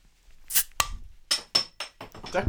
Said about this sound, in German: Der Pascal probiert das Bier gerade mit dem Feuerzeuger aufzumachen.